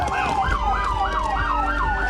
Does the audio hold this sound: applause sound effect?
no